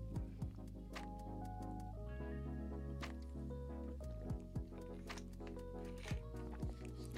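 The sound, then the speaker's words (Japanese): Liquid sounds of carbonated water being poured and sipped, with wet drips, squishy gulps and small sharp clicks scattered over a steady low background hum; no one speaks. “ね、お察しくださいといったところで、はい、炭酸水を失礼いたします。”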